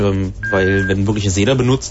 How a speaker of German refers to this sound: Was war denn das jetzt für ein Piepen? Das war das Telefon hier.